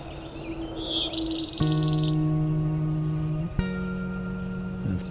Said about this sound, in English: blue-wing warblers really belting it out because they're not very loud birds. That kind of song doesn't carry much.